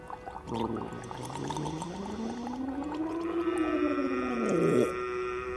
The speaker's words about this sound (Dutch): Een goede gorgel moet klinken als een aquarium dat leegloopt.